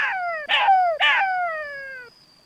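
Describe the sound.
A voice imitates a jackal's cheerful howl as Jackal arrives at the waterhole in a story: a loud yip followed by two more sharp yips, each sliding down into one long, wavering howl that fades out. No other sounds.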